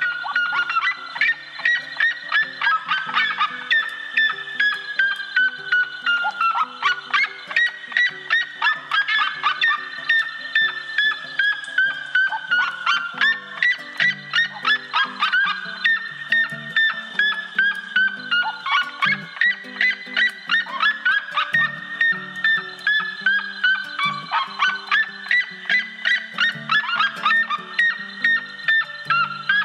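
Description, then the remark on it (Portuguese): Red-legged seriemas give loud, long laughing cries, a rapid series of high yelping notes rising and falling in repeated bursts, speeding up and rising in pitch as they repeat, overlapping as if two birds call in duet, with no talking. “Seus gritos, seja de uma ave solitária, seja de um casal em dueto, são altos e longos. Parecem longas risadas, as quais vão acelerando-se e aumentando o tom à medida que a ave repete o canto.”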